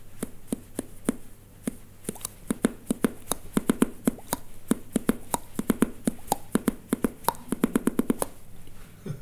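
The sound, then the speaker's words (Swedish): Teeth clicking together in quick rhythmic patterns as a person drums with their thumbs under the chin, a long run of sharp taps drummed out like a beat, with varying spacing and small flurries, and no talking. “Och då började jag trumma liksom med mina tänder genom att slå med, med tummarna under hacken.”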